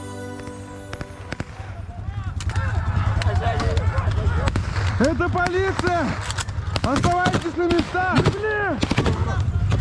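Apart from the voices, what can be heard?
gunfire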